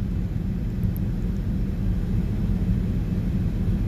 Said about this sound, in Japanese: えー、めちゃめちゃガラガラなフランクフルトからドバイまでの飛行機の中で撮っておりますあのー、いつもと違うかもしれないのともしかしたら飛行機の音はねうるさいかもしれないのでちょっとどうなるか分かりませんが